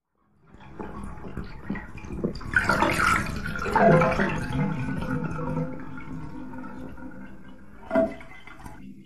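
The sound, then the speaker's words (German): Water drains out of a bathtub with a steady, churning gurgle that swells after a couple of seconds, then runs on evenly before a brief louder slosh near the end. “Rolf hatte das Wasser aus der Wanne gelassen.”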